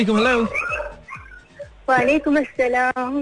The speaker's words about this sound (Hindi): कुत्ते खुल गए पीछे बच के रहना नहीं मैं तो ऊपर हूँ कुत्ते नीचे